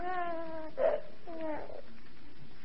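A half-asleep baby boy cries in two drawn-out, wavering wails separated by a short pause, moderately loud, with no one talking.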